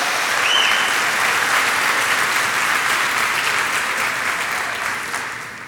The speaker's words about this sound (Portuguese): Pode dar uma salva de palmas sim. Ei, é você aí, glória a Deus.